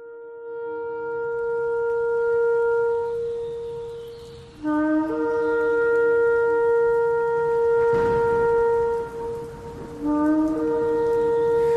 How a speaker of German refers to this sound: weil das Widderhorn geblasen worden ist, ist eine Freiheit ausgerufen worden in dem ganzen Volk Israel.